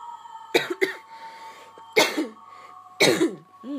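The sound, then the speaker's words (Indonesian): A person coughs in harsh bursts after getting caught in the rain: a quick double cough, then two more single coughs spaced about a second apart, over a faint steady background hum. “batuk ya karena emang efek habis pulang kehujanan ya mohon maaf”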